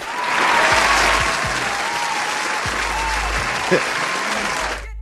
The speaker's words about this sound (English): Big shout out to me. Applause again for me.